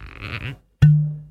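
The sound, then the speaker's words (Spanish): A brief throaty, bleat-like vocal noise, a short pause, then one sharp cork-popping sound with a hollow, ringing tone that fades out, imitated by mouth. “Somos botellas con corcho sonoro.”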